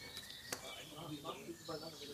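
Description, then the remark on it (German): Faint birds chirping and tweeting in the background of a garden, with a person talking over them in the foreground. “Das sind diesmal nicht meine Vögel, die da im Hintergrund zwitschern ja, hier in meinem Garten.”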